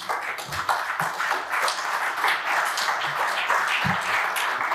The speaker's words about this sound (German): Applaus das ist sozusagen die Ouvertüre.